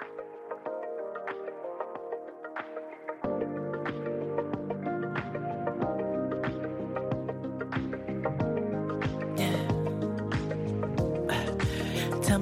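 An electronic pop song intro plays with layered synth chords; a deep bass line and steady beat kick in after a few seconds, building a smooth groove with no vocals yet.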